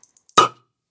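A few light glassy ticks, then one bright, ringing clink of beer bottles knocked together in a toast, its tone fading quickly. No one speaks.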